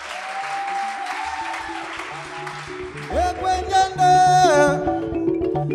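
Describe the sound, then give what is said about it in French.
A crowd applauds steadily, dense clapping while a sustained instrumental note rings over it; midway a singing voice and music swell in as the applause continues underneath, as a traditional Congolese song played on the likembe and two other instruments begins. “Merci d'applaudir très fort.”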